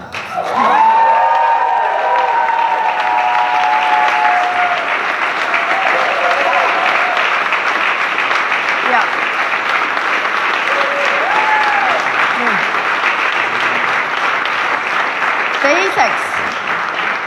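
A large audience applauds loudly and steadily for over fifteen seconds, a dense wash of clapping with scattered cheers and whoops rising above it, as a speaker thanks voters for a strong electoral mandate.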